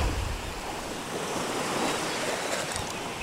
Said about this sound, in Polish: Ten szum fali i mewy gdzieś oddali to mój mały prezent dla Was.